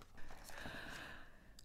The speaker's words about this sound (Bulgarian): Хайде да отгърнем страницата, за да видим какво се случва по-нататък.